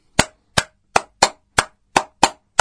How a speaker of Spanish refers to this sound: ahora los voy a invitar a hacer una clave batiendo palmas.